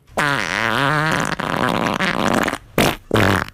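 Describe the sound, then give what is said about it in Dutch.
A loud, drawn-out wet fart that starts with a low, wavering rumble, turns sputtering and noisy, then ends in two short explosive bursts after a brief gap. “Dat is toch een vorm van broekhoest die al vervaarlijk begint te neigen naar diarree.”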